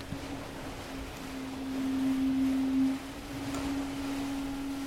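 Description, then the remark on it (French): A racing sailboat moves fast through water, gliding and slamming through waves, with a steady rushing wash and a sustained humming drone from the hull, swelling slightly midway. No one speaks. “Le bateau, lui, il glisse, il vole, il tape, comme d'habitude.”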